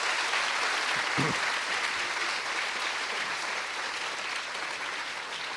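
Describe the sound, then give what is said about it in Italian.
An audience applauds steadily, a dense, even wash of many hands clapping that holds at a constant loud level for several seconds, with no voices standing out. “questo è guadagnato un applauso.”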